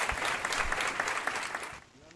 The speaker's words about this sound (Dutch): De broeders van Nederland. Een groot applaus voor alle broeders en zusters.